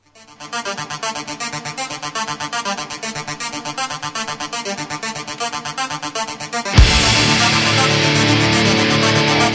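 A heavy metal song plays from a recording: a loud, steadily pulsing rhythmic intro that crashes into a dense wall of distorted guitars and drums for the last few seconds, with no talking.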